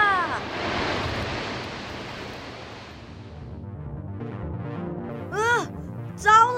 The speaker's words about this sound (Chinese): 他还听见轰轰的水声。水流越来越急，突然一声隆隆声，就像一道瀑布一样，水流汇集到大海中了。